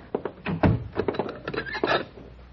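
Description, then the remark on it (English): A wooden door is shut and bolted, a quick run of solid thunks and clattering clunks with a brief scrape, fairly loud, with no voices. “Shut the door and bolt it.”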